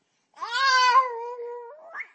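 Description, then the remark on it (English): A baby makes a drawn-out, strained vocal sound in imitation of a frog: one long, steady, reedy tone that sags slightly in pitch, then a brief rising squeak at the end. No talking. “And making frog sounds, you are.”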